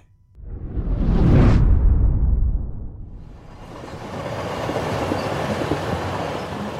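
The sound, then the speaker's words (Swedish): A runaway train with broken brakes roars past along a track at speed, its loud rumbling whoosh swelling then dropping, followed by a steady clattering rush of wheels on the rails with no voices. “Ett skenande tåg med trasiga bromsar rusar fram på ett spår.”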